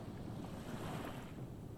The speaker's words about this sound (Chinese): 天空是一片深蓝，太阳温和而且明亮，你可以听到海浪轻轻的拍打着沙滩。